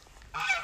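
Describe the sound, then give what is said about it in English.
A goose lets out one short, loud honk, a nasal, reedy call that starts abruptly after a brief quiet moment and holds steady to the end. “now my goose wants to get involved.”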